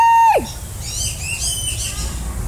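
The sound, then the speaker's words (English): A clear, sustained whistle bends sharply downward, then a bird answers with a run of high, warbling whistled calls, moderately loud, with no talking. “So that's the whistle. That's the whistle.”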